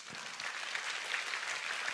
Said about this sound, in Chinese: 真的就是在这一边，各位你们所做出来的，给自己一个的掌声。